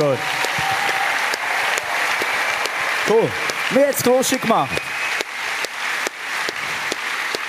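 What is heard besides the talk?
audience applause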